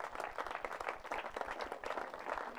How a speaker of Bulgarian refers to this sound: Да, да, може да ръкопляскате за това.